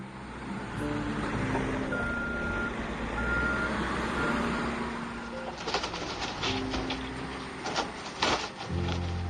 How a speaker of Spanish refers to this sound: utiliza una máquina excavadora para destruir los cayucos. Y ha perdido la cuenta de los cayucos que, que, que ha destrozado este año.